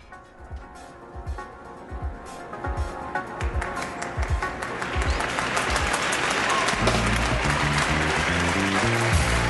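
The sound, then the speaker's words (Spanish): In a live concert recording, as a musician appears on stage, one man's loud, sharp claps, picked up very close to the ambient microphone, stand out in a steady rhythm above a crowd's applause, which swells and thickens until it nearly swallows his clapping toward the end. “de pronto aparece … en el escenario y el hombre que fue a ver a … aplaude de una manera, se escucha, se sobresale el, aplauso.”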